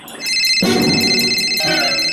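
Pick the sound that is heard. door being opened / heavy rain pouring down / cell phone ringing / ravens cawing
cell phone ringing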